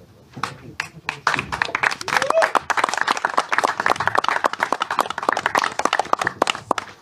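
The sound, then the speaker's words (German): An audience breaks into applause for departing guests, dense overlapping claps that start scattered and swell into a steady, lively roar of clapping lasting several seconds, with no voices on top. “Aber ihr dürft jetzt schon mal euren Applaus...”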